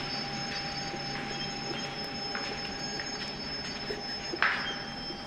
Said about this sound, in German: Die drei kommen gerade die Treppe am Bahnsteig hoch, als der Zug einfährt.